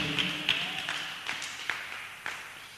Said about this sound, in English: Give a clap and appreciate the Lord.